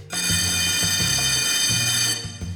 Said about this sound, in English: Okay, so yes, he does, but this sound is not the Muffin Man. It's the sound of the bell ringing and telling us we're out of time for this week's Hebrew School.